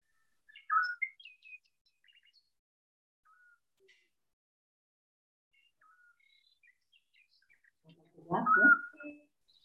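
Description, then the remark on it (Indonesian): Bright bird chirps and short whistled song phrases ring out sporadically, with a quick burst near the start, faint scattered notes through the middle, and a louder, fuller call at the end. “Pernahkah saudara mendengarkan suara burung yang indah ini?”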